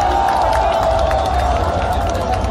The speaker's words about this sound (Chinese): 再次向球员最大的掌声